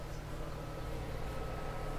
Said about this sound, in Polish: to jest bardziej słyszalne niż yy, u, u Krzysztofa, chociaż tonacja jest podobna obu wiatraków